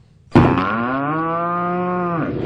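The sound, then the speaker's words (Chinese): An old cow lets out one long, loud moo, a steady low-pitched bellow lasting about two seconds that holds its tone before stopping abruptly. No other sounds accompany it. “近处有一头老牛，听到了他们的争论，就走过来，对他们俩说：”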